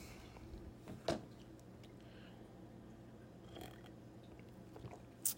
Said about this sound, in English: Here we go, that first sip feeling of coffee, and maybe it'll help me get my fucking thoughts together, man.